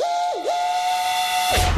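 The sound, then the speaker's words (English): A loud steam train whistle blows in one sustained, bright tone with a quick dip in pitch near the start, ending with a hiss of steam and rumble. “That was a train at the Brilliant. start. All aboard the VAR train, everyone”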